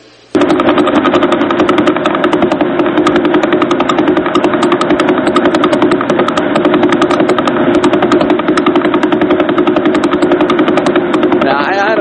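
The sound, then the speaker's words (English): A loud, steady rapid pulsing buzz, like a fast mechanical drone or engine, repeating evenly for about twelve seconds before cutting off abruptly: the radio signal of the Vela pulsar, about a thousand light years away, picked up by radio telescopes and converted to audio. “This is what from a thousand light years away, the Vela pulsar sounds like right now.”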